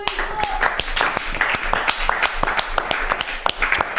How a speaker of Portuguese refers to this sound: Uma salva de palmas à Twinkle.